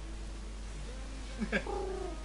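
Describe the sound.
Someone briefly mimics a pigeon's coo with a short, wavering, throaty vocal sound that rises then slides down, over a quiet background hum.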